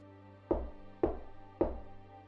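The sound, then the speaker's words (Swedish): Three evenly spaced knocks on a door, each a sharp, resonant thud with a short decay, clear with nothing else around them. “Nu är lite väl mycket knack och han pratar om knack ner och det är allt. Det, ja, ska jag öppna eller?”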